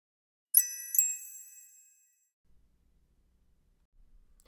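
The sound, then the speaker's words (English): Two bright, bell-like dings in quick succession, clear, their shimmering tones ringing out and fading over about a second before silence; a sound effect marking an important point. “I'm going to introduce sound effects whenever there's going to be something important that either I say or that um, the guests that I have on the podcast are going to say, right?”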